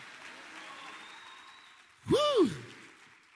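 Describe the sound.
A crowd claps steadily in applause for Jesus, and partway through a single loud voice lets out a rising-and-falling cheer over the applause before the clapping fades.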